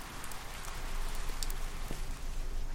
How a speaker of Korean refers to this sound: 도서관 야외 휴게실로 나오니 갑자기 소나기가 내리기 시작했다.